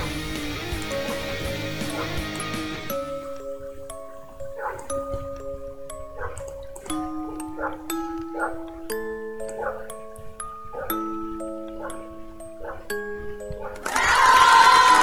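A catchy melody played with short, pitched dog barks, one note after another in a steady bouncing rhythm, framed by a burst of noisy music at the start and end.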